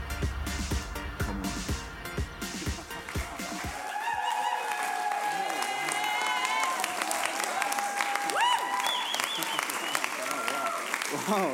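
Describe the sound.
A church audience stands and bursts into loud, sustained applause to welcome a guest speaker and celebrate Jesus. The clapping lasts the whole clip, a dense wash with whoops and cheering voices rising over it.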